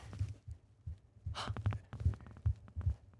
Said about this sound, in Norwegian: Jeg skal prøve å ta mikrofonen tett inn på hjertet.